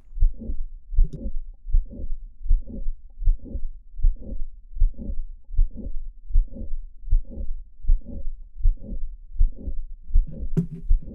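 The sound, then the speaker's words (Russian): Slowed-down heartbeat with a late systolic murmur and no click: steady, evenly spaced low thumps, about a dozen, each trailed by a soft rushing whoosh, clear with no talking. “Конечно-систолический шум без щелчка. Для лучшего восприятия воспроизведение замедленно.”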